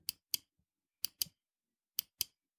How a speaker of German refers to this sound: Kann man das hören? Wenn nicht, es ist ein Mausklicken. ich höre nur, hör, ich hör, hör nur Klacken. Genau, dieses Klacken ist, ist ja. eine Maus, die ah. ich bediene. Ah. Und jetzt steht dir dieses Klacken vor mit einer 84er Macintosh-Maus.